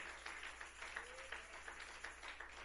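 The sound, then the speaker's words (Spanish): An audience claps loudly together in praise to God in a steady, quick rhythm, the dense clapping sustained throughout, with faint voices mixed in underneath. “Cada día, fuerte las palmas a Él.”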